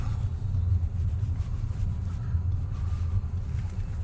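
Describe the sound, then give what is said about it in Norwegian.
A car drives over speed bumps, heard from inside the cabin as a loud, steady low rumble with faint uneven jolts; no one speaks. “Skjønner ikke hvorfor det er eh, laget sånne fartsdumper.”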